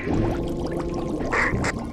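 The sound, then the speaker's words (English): Water rushes and pours steadily, a dense gurgling flow with a couple of brief splashy surges near the end, like a chamber draining, as an outer sea door is closed. “Closing outer sea door.”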